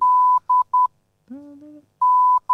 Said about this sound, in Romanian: Asta, asta zicem în, în codul morse pentru amatorii de morse.